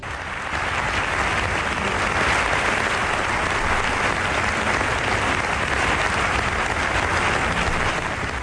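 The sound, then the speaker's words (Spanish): Sustained applause from a large crowd, lasting a minute and a half, for Pablo Casado's farewell as president of the Partido Popular; a dense, steady wash of clapping that holds at an even loudness from start to finish with no voices standing out. “Un minuto y medio de aplausos un minuto y medio para su adiós como presidente del Partido Popular.”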